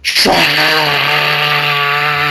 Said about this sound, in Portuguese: Não deu cinco minutos, a gente escutou a máquina de, de furar, né?